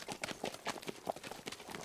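horse hooves clip-clopping

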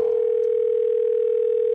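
telephone call ringing tone

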